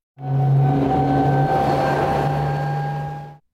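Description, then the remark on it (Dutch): A Candela electric hydrofoil boat passes by, a steady motor hum with a faint high whine over a broad rushing wash, holding level for about three seconds before cutting off. “En dit was de eh, Candela, de elektrische draagvleugelboot.”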